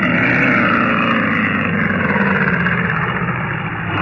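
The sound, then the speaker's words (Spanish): A car brakes to a stop at night on a road through dense fog in the countryside of Sussex county, near the village of Ringley, then its engine idles in a steady rumble that holds at an even loudness throughout, with no voices and no other distinct sounds. “Pero de repente, Calimán hizo funcionar los frenos del auto y...”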